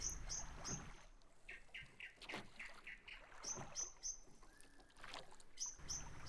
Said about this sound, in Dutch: En terwijl ze daar roeien en de maan schijnt over dat vlakke water, is er niets anders te horen dan het getik van de roeispanen in het water, het gefluit van een enkele vogel en het geklots van het water tegen het bootje.